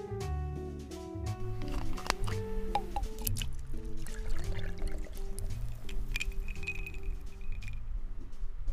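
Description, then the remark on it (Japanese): Water is poured and drips into a glass of 30-degree Chuko awamori to make a mizuwari (awamori with water), with scattered light clinks, while soft music with steady sustained tones plays underneath throughout. “お待たせしました中高30度水割りです”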